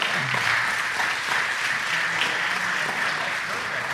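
A crowd applauds steadily, a dense, even wash of many hands clapping at a constant loudness for the whole stretch, with faint voices murmuring underneath.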